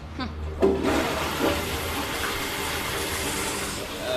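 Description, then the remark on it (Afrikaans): A toilet that is due to be repaired flushes: a sharp clunk of the handle, then a steady, loud rush of water that hisses and gurgles without letup for several seconds. “Eh, hulle sal die toilet vanmiddag kom regmaak en die stikkende teels vervang.”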